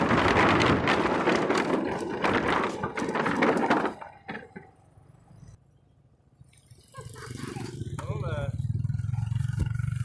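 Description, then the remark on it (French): A motorbike rumbles across a wooden bridge, loose planks clattering loudly and rapidly for a few seconds, then it quiets to a steady low engine drone with some wind buffeting. “Ok, c'est parti, on va prendre un pont en bois à moto.”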